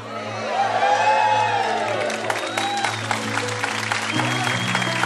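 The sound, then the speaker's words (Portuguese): An audience bursts into sustained, dense applause with scattered cheers and high whoops, the clapping loud and steady throughout, over a held low musical drone. “Aplaude, irmão, porque isso é milagre.”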